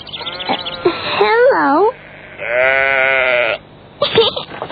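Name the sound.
sheep bleating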